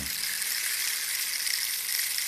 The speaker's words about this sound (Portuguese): Já, já cantou karaoke, agora é pau de chuva.